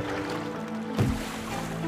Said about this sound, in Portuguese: Na beira do rio está o barco. Balança, balança, a água balança, o barco balança. O rio chacoalha os peixinhos. Peixinhos vêm, peixinhos vão. O remo de bambu vai e vem.